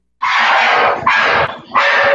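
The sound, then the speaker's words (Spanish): Several dogs bark in a loud, chaotic burst, three long overlapping surges of noisy, distorted yelping, with no talking. “imagínate el, desmadrote de los perros que ni siquiera logras captar claramente a MP3”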